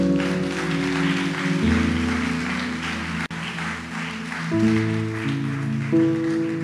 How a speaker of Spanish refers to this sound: Vamos a darles aplauso a Dios.